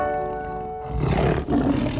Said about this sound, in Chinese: 没错，你没有听错，这就是老虎的叫声。